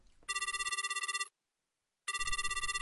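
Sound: telephone ringing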